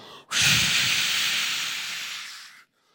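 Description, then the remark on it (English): A voice imitates blowing wind with a long, steady breathy hiss lasting over two seconds, loud, fading slightly before cutting off abruptly. “And the wind starts to blow”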